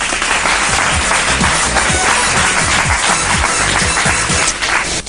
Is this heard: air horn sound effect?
no